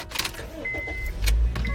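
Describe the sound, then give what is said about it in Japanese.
Car interior ambience during a live stream from inside a hot car as the air conditioner is switched on: a low rumble and a few soft clicks and mechanical whirs, like controls being operated, with a thin steady tone briefly humming in the background. “なんかたまにそうライブ配信車の中からしてて、だんだんね、こう暑くなってきて、この時期。”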